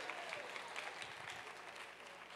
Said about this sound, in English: Thank you for that clap.